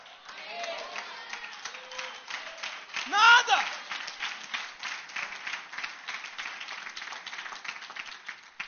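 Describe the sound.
An audience applauds steadily for several seconds during a sermon, a dense patter of many hands clapping, with a single spoken word breaking through briefly partway in.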